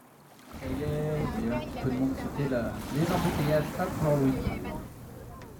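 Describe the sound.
A ferry boat crossing on water, on a 35-minute crossing across the Lorient roadstead past Port-Louis toward Roi, with a little evening wind: a steady rumble of engine and water noise runs throughout, with people talking over it.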